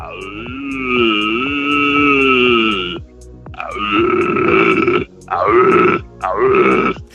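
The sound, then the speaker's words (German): A man imitates a red deer stag's roar: one long, guttural bellow lasting about three seconds, then a string of shorter, throaty grunting roars, loud with no speech. “Äh, wir werden von dir noch ein bisschen später erfahren, was man genau braucht, um äh, so zu klingen wie ein Hirsch.”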